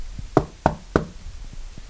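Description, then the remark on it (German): Three sharp knocks on wood in an even rhythm, each a short hollow rap, followed by faint softer taps and quiet background noise. “Holz klopfen. Warum? Das macht man doch, wenn man abergläubisch ist, oder?”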